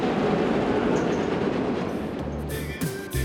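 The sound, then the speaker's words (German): The world's largest wooden roller coaster, at a Volksfest funfair, rattles and rumbles steadily along its track, a dense, loud clatter with a low hum beneath it and brief metallic tones near the end. “Die größte Achterbahn der Welt aus Holz.”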